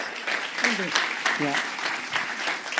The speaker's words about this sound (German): Komm herzlich auf die Bühne und lass uns mal einen ganz großen Applaus geben.